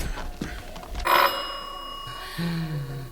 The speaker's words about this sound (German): Ich klingle mal.